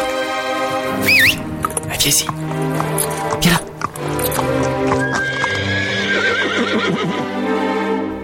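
A horse whinnies loudly and repeatedly, with long, wavering neighs and snorts, while hooves clip-clop steadily underneath.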